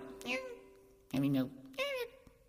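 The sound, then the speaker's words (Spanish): A human voice imitates a cat, giving three drawn-out meows in quick succession, fairly loud, each with a wavering, sliding pitch. “Miau.”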